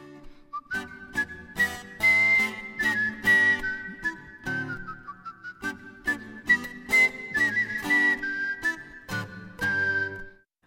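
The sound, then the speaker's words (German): A clear, skilled whistler carries a melody over a rhythmic instrumental accompaniment, the pure tone gliding and holding notes prominently above percussive chords for about ten seconds. “Auch wenn das Kunstpfeifen heute nur eine kleine musikalische Nische ist, in der aktuellen Popmusik wird so viel gepfiffen wie noch nie.”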